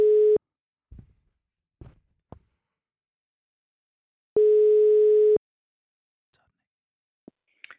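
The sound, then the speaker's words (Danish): A telephone ringback tone: two steady one-second beeps about four seconds apart, with a few faint clicks and handling noises in between. No one speaks. “nu ringer vi op til øh, ja. Anne-Marie”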